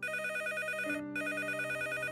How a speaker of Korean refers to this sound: 집 전화가 울리자 유경이에게 말한 후 전화를 받았다.